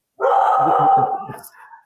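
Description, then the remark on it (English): A dog lets out a single drawn-out, loud bark, trailing off into a softer whine at the end. “my dog barking.”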